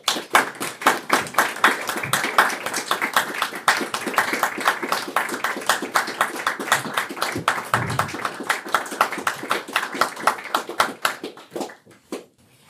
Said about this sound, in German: Ja, Sie hören es äh, am Applaus.